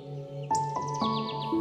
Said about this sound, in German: Die Vögel singen fröhlich.